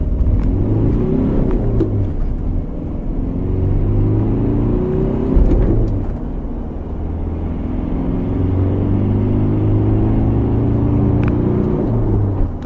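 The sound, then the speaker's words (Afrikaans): A two-litre turbo diesel pickup engine producing 120 kW and 400 Nm drones loudly while driving, its low rumble swelling and easing as the vehicle accelerates and shifts, with no voices. “Daar's net een masjien in die reeks, 'n 2 liter turbo diesel wat 120 kW en 400 Nm wrinkrag uitskop.”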